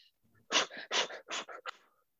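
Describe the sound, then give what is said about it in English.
Quick, forceful hyperventilation breaths in and out, about five sharp breathy bursts in a steady rapid rhythm, fairly loud, with no talking over them, demonstrating the fast-breathing phase of a breathing exercise. “Then we go into hyperventilation, which is fast breathing.”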